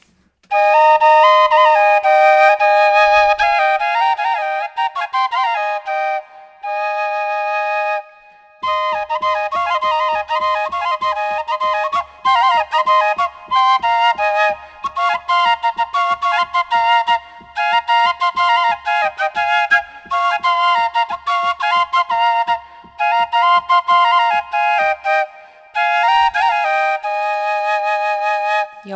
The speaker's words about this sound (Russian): Давайте вот мы заговорили о двойной свирели, mm-hmm. и мы можем ее продемонстрировать. Потому что скоморохи были ребята настолько ушлые, взрослые, что они играли на двух инструментах одновременно.